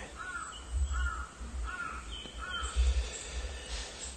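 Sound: crows cawing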